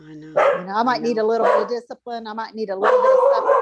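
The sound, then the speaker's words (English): A dog barks and yips at a man in a rapid, continuous string, fairly loud, while a person talks over it throughout. “that's my dog barking at my husband.”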